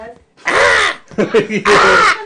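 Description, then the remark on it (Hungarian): A human voice imitates a raven with two loud, harsh, drawn-out caws, separated by a brief choppy vocal sound. “Nem fogja be a száját, nehogy. Átment hollóba.”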